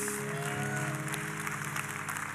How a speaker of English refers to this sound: If you're grateful for Jesus, would you give him a hand clap of praise